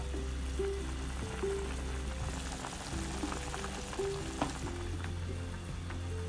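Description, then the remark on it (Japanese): A steady sizzle of broccoli cooking in a pan, with continuous crackling and popping and a low hum underneath, moderately quiet, with no one speaking. “そう今日はですねブロッコリーのえっと煮る汁煮汁をちょっと使ってあのブロッコリーの栄養素を全部根こそぎ体に入れていきたいと思いますよいしょ”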